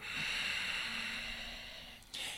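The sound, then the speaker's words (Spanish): A long, steady breath is let out after a full inhalation is held for a short pause during a breathing exercise, an airy rush that fades slightly over two seconds before a fresh intake of air begins at the end. “Sostienes el fondo de tu capacidad de inhalar, guardas una pequeña pausa y luego sueltas el aire.”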